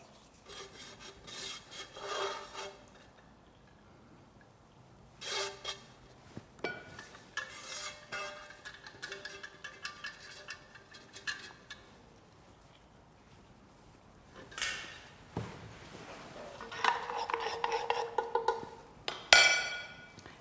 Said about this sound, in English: For the final layer, I'm going to mix the cheese with some breadcrumbs and then sprinkle it over the top.